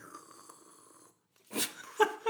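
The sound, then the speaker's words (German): A voice imitates the bubbling gurgle of a vape being puffed, a few rough, wet bursts after a short silence, fairly loud, following a steady faint hum at the start. “nicht eine normale Zigarette, sondern solche, die komischen neuen Blubberdinger da”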